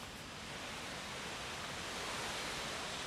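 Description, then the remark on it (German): A steady, unbroken rush of falling water from a waterfall, with a dense hiss that stays even throughout. No voices. “Man kann dann seitlich an diesem Wasserfall so einen Zickzack hoch.”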